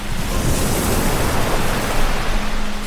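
A steady, dense rush of ocean surf fills the whole stretch, a constant broad hiss with a low rumble beneath, fairly loud and unbroken, with no voices.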